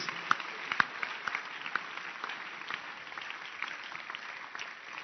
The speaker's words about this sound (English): People drive three hours before they arrive here. Can you clap your hands for this church members? This church's members.